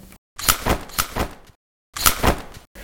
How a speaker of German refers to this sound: Das war am Anfang so ein aufschnappender Automatik-Regenschirm. Zweimal hintereinander, beziehungsweise dreimal.